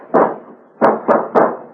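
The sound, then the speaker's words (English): Heavy, booming blows strike a locked door as it is being broken down: one hit, a pause, then three quick slams in a row. No voices are heard. “Bring it down, Mike.”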